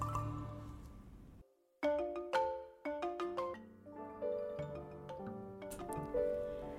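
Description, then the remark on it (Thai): A railway station bell at Thung Song Junction station, Nakhon Si Thammarat province, Thailand, rings out as a train pulls into the platform, a quick series of clear, resonant strikes, each tone lingering and overlapping the next, loud with no voices. “เมื่อรถไฟเข้าเทียบชานชลาสถานีชุมทางทุ่งสง จังหวัดนครศรีธรรมราช ซึ่งเป็นชุมทางใหญ่ของภาคใต้ อรวรันที่หลับสนิทไปแล้วสะดุ้งตื่น ด้วยเสียงระฆัง และเสียงประกาศจากนายสถานีรถไฟอีกครั้ง”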